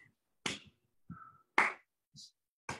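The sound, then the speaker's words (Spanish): Sharp hand claps ring out one at a time, roughly a second apart, each crisp and fairly loud, with brief quieter sounds and a faint murmur between them. “Con cada aplauso se emiten 250 CFDIs en México.”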